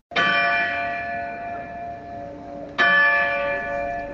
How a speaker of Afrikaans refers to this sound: Dit is die gelui van die groot klok by die hoofingang van die kasteel. Dit was 'n vorm van beheer wat uitgeoefen was. Jy kan imagine hoe die slawe die klok aangesien het as die sterkste simbool op die plaas van onderdrukking.